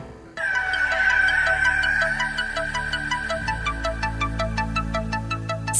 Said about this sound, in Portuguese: Vamos ouvir o introdutório do tempo.